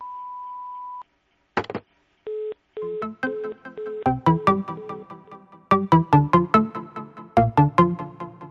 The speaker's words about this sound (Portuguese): Oi, eu não posso atender agora, mas deixa o seu recado depois do bip.